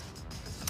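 A chair creaks briefly, a low, grinding wooden groan lasting under a second, with no voices over it.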